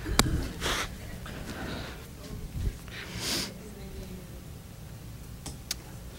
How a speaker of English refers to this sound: Now that I'm crying, I have to blow my nose.